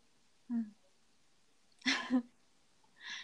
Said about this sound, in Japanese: くしゃみです